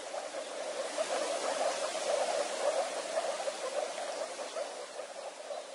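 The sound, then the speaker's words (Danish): A dense chorus of moor frogs calling from a small pond in Lille Vilmose, their soft bubbling notes blending into a steady, continuous murmur, with no voices present. “Spidsnudet frø og bjeffer og den putsnudet knurrer ude i et lille vandhul.”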